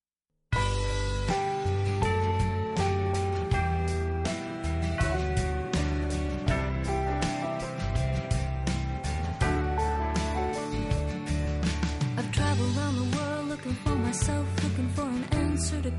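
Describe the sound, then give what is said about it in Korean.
A song plays continuously at a steady, full volume, with a dense mix of sustained instrumental chords, a strong bass line and a clear rhythmic beat, and no talking over it. “자 노래 듣고 돌아오겠습니다.”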